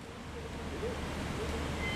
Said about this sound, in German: Also wir sind jetzt hier gerade auf der Gießhalle vom Ofen 8. Wenn Sie jetzt also Richtung Ofen gucken, sehen Sie jetzt hier den, äh, den Abstichvorgang am Ofen 8 läuft jetzt gerade, sowohl Rohr als auch Schlacke werden jetzt gerade abgestochen